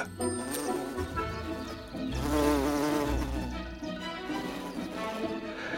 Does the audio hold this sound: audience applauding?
no